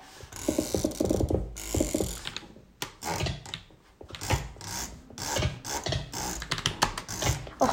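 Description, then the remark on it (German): A printer starting up, with a run of mechanical whirring, rasping and ratcheting clicks that come in uneven bursts and pauses, with no talking over it. “nee, jetzt geht der Drucker an.”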